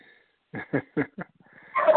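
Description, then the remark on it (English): A dog named Daisy barks four times in quick succession, sharp, followed by a brief rustling noise with no one speaking. “Dogs are that's, starting already.”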